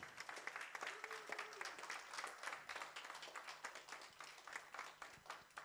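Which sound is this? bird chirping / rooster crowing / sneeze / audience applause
audience applause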